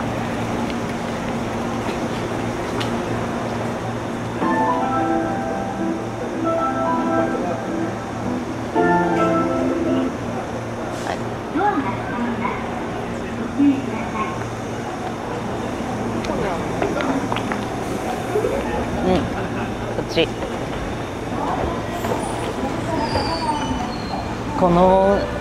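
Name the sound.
train running on rails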